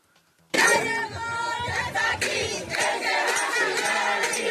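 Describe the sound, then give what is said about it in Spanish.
A loud crowd of women chants a cheer in unison, bursting in after a brief quiet start and sustaining a dense, rhythmic roar of many voices with repeated accented pulses. “A mí me gustaría más a mí me gustaría más que esa misma porra que ellas están diciendo se fuera de la siguiente manera.”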